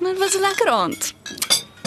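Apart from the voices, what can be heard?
glasses clinking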